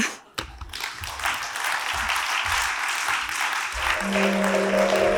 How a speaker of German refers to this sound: Applaus